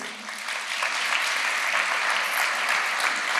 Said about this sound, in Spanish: Aplaudimos al autor del poema.